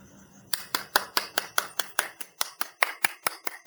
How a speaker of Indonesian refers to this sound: Aduh pakai tepuk tangan. Ya udah terima kasih deh Kak ya udah tepuk tangan.